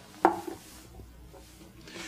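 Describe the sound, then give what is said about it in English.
A piece of wood is placed into a glass bottle with lime water, giving one short, fairly quiet knock with a faint glassy ring, followed by near silence. “Suppose I take this piece of wood and put it in a bottle with lime water.”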